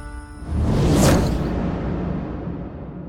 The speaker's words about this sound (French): Craignant pour sa vie et pour la sécurité de tous, il prit son arc et lui tira une flèche en plein cœur.